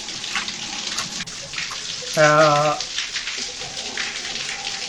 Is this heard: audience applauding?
no